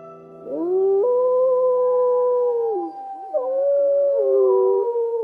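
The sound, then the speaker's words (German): Wolves howl in the Bavarian Forest National Park, Germany, in long, sustained, mid-pitched tones that rise at the start, hold steady, then waver and dip, with overlapping voices blending together. Loud and continuous, with no speech. “Das Wolfsgeheul und die typischen Schreie vom Luchs.”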